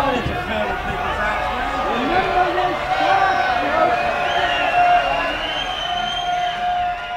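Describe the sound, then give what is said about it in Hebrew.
A large festival concert crowd boos and shouts in a steady, loud roar that never lets up, with drawn-out wavering voices rising above the dense din, because the singer does not go on singing after the microphone returns to her. “גם אחרי שהמיקרופון חוזר אליה, הקהל צועק לבוז כי היא לא ממשיכה לשיר.”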